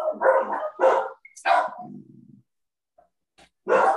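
A dog barks loudly in a quick series of sharp barks, trailing into a low rumbling growl, then falls quiet before one more bark at the end.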